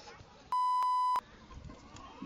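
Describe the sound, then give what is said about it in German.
A loud, steady censorship bleep, a single high pure tone lasting just over half a second, cuts over speech, with talking continuing softly before and after it. “Das piepen wir.”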